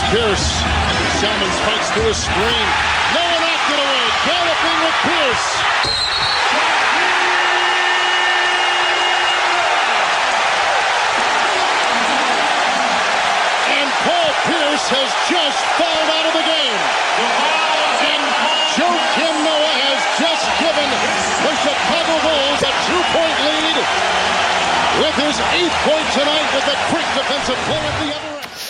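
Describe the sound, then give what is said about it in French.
A basketball arena crowd at the United Center roars with sustained, loud cheering and whoops for nearly thirty seconds after a Bulls play with a follow-up free throw that forced a Game 7 against the Celtics, a dense wall of voices that barely lets up, with a brief horn-like tone early on. “mais cette action, et crois-moi, c'était au United euh, Center, ça a fait péter la salle.”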